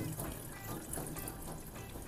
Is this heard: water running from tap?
yes